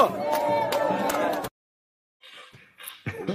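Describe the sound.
A loud, dense burst of excited fans cheering and shouting together for about a second and a half shortly before a game, then silence, followed by scattered quieter crowd noise and voices.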